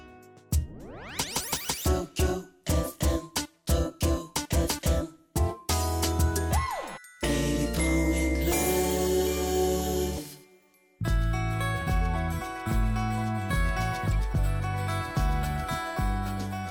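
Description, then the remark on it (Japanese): An upbeat 1980s pop song, a 1984 hit, plays loudly on the radio, opening with punchy staccato synth chords before settling into a full, steady band groove, with a brief dropout partway through. “はいええー、百八十四年のヒット曲です”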